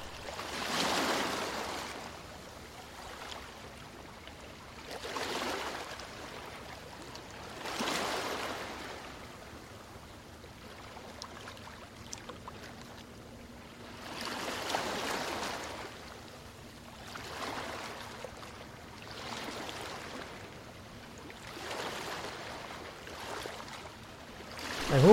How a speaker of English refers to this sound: the sound of waves lapping on the shore. Enjoy six minutes of pure relaxation